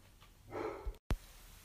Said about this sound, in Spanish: Bueno, perdón por los ladridos del perro.